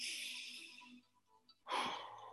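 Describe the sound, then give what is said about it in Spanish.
A long, airy breath drawn in during a breathing exercise, a brief pause, then a sudden forceful whooshing exhale. No one speaks. “Vamos a hacer cinco respiraciones de nuevo, ¿ok?”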